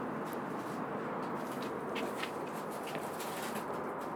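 A steady wash of traffic fills the outdoor air at the Amstelglorie allotment garden complex in Amsterdam, where the road runs right alongside. It is a constant low rumble without breaks, with faint chirps of birds flickering now and then above it.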